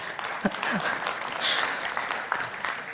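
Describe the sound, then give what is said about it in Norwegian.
A burst of audience applause for a man who has been singing fills the whole three seconds, dense overlapping claps at a steady moderate level, with a few faint voices and brief whoops mixed in underneath. “Jeg syns jeg kan gi en applaus at han i det hele tatt står oppreist og synger her.”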